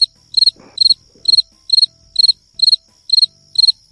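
A cricket chirps steadily and close by, each chirp a quick triple pulse repeating about twice a second against an otherwise quiet background with faint low rumbles.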